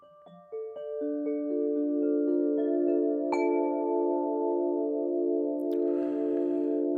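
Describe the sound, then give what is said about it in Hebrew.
A nine-note dream harp is played alone during a meditation. Several notes are plucked one after another, each ringing on and blending into a long, sustained shimmering chord, with a soft rustle near the end. “היום אנחנו נעשה את המדיטציה אה, גם עם תדרי סולפג'יו וגם עם הכלי שנמצא מאחוריי, שנקרא אה, נבל חלומות. הוא נשמע ככה.”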